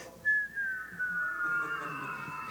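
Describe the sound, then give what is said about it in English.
A single long descending whistle, made by a person imitating a cartoon character falling all the way down to the ground, glides steadily downward in pitch, clear, with no talking over it. “You want to help me out with the whistle?”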